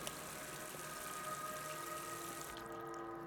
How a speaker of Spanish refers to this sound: El agua corriendo se las estaba llevando por el desagüe. Pero mi mamá solo veía agua correr.